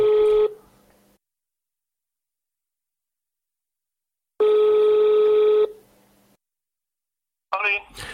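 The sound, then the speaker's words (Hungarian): A phone rings over a speakerphone line: two steady, buzzy ring tones separated by a few seconds of silence, followed by a brief burst of someone starting to talk. “Elvileg ki van hangosítva. Hallom.”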